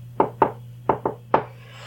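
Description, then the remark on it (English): Five light knocks on a wooden door, tapped in pairs and then a single rap, over a low steady hum, with no one speaking. “And after a short while of this getting closer, there's a light rapping at your door.”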